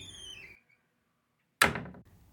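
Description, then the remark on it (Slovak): A door is shoved open by a wolf pushing hard against it and bursting into a room of a house, with a loud, sudden bang that rings out briefly, after a short silence and a faint creaking, whistly tone at the start. “V dome nepočul nejaké zvuky, nuž sa zaprel mocne do dverí a vrútil sa do izby.”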